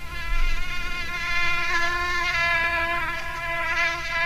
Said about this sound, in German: Ich glaube, es gibt kaum was Nervigeres, als wenn man im Bett liegt und hört, wie eine Stechmücke ihre Kreise zieht. In letzter Zeit sind die kleinen Biester besonders häufig unterwegs.